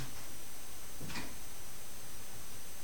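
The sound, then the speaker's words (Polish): A door opens and closes with a single brief clack near the middle, set against a steady hiss of room noise. No one speaks. “Otworzę i przymknę drzwi.”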